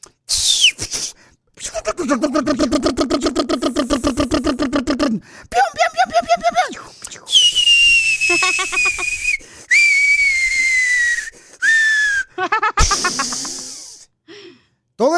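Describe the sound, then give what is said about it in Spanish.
A voice imitates war sounds as part of a joke: a rapid buzzing rattle like gunfire, sputtering bursts, then a long high whistle sliding slowly downward like a falling bomb, ending in a hissy explosion burst. “Oh, porque te puedo hacer un resumen de lo que pasó cuando yo estaba en medio de la guerra.”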